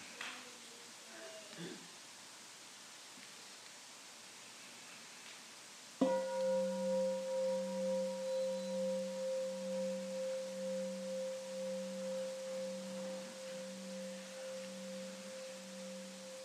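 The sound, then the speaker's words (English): A large meditation bell is struck once after a quiet stretch to close a deep looking meditation, its deep tone ringing on for many seconds with a slow, wavering pulse as it gradually fades. “And we'll listen to one sound of the big bell to let this deep looking meditation go.”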